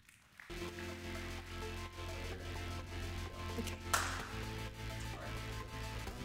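An audience applauds, a dense, steady patter of many hands lasting several seconds over a sustained low droning tone, with a brief louder burst near the end and no talking.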